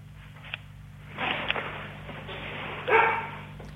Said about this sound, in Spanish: ¿Quién es que está ladrando detrás tuyo? Mis dos perras.